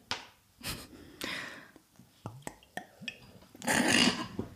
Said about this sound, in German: Es hat richtig schon gegluckert. Schlucken kann sie.